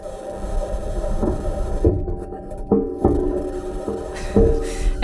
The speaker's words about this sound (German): Und wenn wir dann da sind, dann wissen wir ja schon, wie es da klingt. Das hat uns ja der Mars Rover zur Erde geschickt, nämlich das hier.